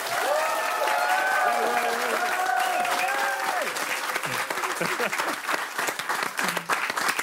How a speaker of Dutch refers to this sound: Dames en heren, mag ik een hartelijk applaus voor niemand minder dan Sam Hagen.